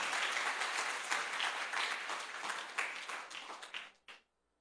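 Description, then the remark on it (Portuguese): An audience at a religious gathering on New Year's Eve 2022 applauds the Lord steadily for about four seconds, dense overlapping claps, then the clapping thins out and stops abruptly with a last few scattered claps. “Aplauda ao Senhor, não é para mim não, é para o Senhor.”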